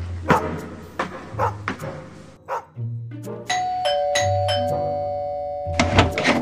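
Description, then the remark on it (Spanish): A dog barks repeatedly in loud bursts, with a two-tone doorbell chime ringing out partway through and lingering beneath the later barks. “Oh no, es el perro de las caras de Belmez.”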